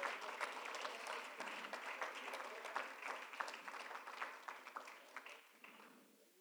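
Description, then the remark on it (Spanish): An audience claps together in a dense, sustained round of applause for Christ during a Spanish-language church sermon, with many overlapping hand claps forming a steady crackle that thins out and fades toward the end. “Denle un fuerte aplauso a Cristo, hermanos.”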